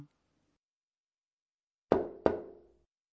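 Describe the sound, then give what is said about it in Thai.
Two sharp knocks by a person on a wooden door in quick succession, each with a short resonant ring that fades out, heard alone after a quiet pause. “เอ๊ะ นั่นเสียงคนเคาะประตูหรือเปล่าคะ ใช่ครับ ใช้คำเรียนเสียงนี้เหมือนกันครับตนตม”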